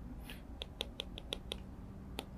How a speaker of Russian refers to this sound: То есть вы когда, пи- вы когда пишете, у вас постоянно, то есть вы когда карандашиком касаетесь экрана, у вас вот постоянно вот такие звуки.